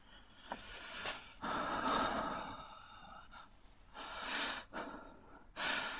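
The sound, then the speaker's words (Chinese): An old man at a station platform gasping for breath: a long, heavy exhale followed by several ragged, breathy gasps in an uneven rhythm, fairly loud and with no talking. “不大一会儿的功夫，老人长长的出了一口气后，喘息着说出话来。”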